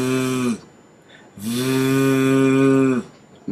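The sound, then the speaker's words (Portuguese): A voice holds the buzzing voiced 'th' consonant of English 'this' twice, with vocal cords vibrating, in a pronunciation demonstration: a short half-second buzz and then a steady, longer one of about a second and a half, humming like a kitchen mixer. “parece uma, uma batedeira.”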